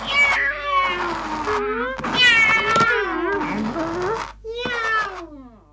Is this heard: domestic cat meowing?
yes